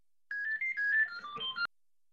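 A phone rings with a short electronic ringtone melody of quick, bright tones, heard alone for just over a second before cutting off abruptly.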